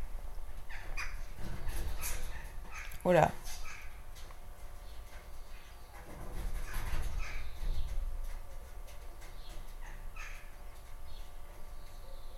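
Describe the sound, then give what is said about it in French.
Birds fighting on a roof, scuffling, with one loud harsh squawk standing out among scattered rougher calls and scraping. A person briefly exclaims. “Je crois qu'il y a des oiseaux qui se battent sur mon toit.”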